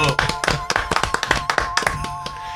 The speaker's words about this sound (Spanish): Ahora sí que sí. Aplausos, por favor. Bravo.